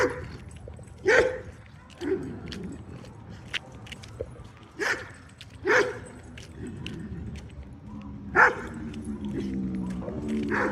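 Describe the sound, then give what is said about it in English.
Dogs bark in sharp, irregular bursts, about five distinct barks spread over several seconds, loud against a steady outdoor background, with a drawn-out whining tone near the end. A dog on a leash reacts to other barking dogs while a German Shepherd runs along a fence line. “It reacts to the other barking dogs.”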